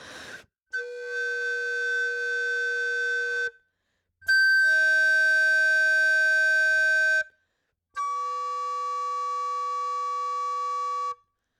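Three sustained multiphonics played on an alto recorder, each a steady chord of several overtones from a single fingering sounding at once with a bright, buzzy edge, separated by short silences. Fairly loud, with no talking.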